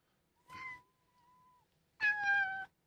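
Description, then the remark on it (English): A cat meows twice, a shorter cry that trails into a thin drawn-out tone, then after a pause a louder, strained meow. No one speaks. “the cat, cat was going to interrupt Mitch”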